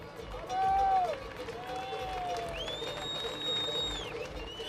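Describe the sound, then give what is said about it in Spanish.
An outdoor crowd of about 200 people with banners applauds and cheers a tractor protest caravan arriving at the Arenal, with a steady, dense roar, while several long, sliding whistle-like tones rise and fall over the noise. “Unas 200 personas le están acogiendo en el Arenal, además con pancartas, en apoyo también durante toda la Gran Vía.”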